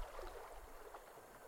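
The calm water of a stream flows steadily and softly on an autumn day, a continuous gentle wash with a faint low rumble underneath and no voices.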